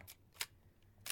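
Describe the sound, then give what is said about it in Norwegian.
Sharp mechanical clicks of a Nikon FE analog film camera shutter, a few crisp snaps spaced across a second, fairly quiet with no talking. “Det her er lyden av et analogt kamera.”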